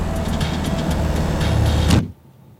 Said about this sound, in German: Ein Wagen erwartet sie. Laufender Motor, offene Tür. Sie werfen sich auf die Rückbank.